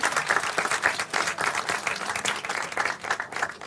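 Sustained applause from a live studio audience, many hands clapping in a dense, steady wash that stays loud throughout with no talking over it.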